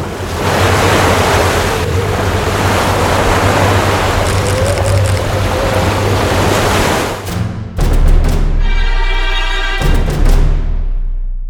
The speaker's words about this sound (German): und die tosende See peitschte um ihn herum.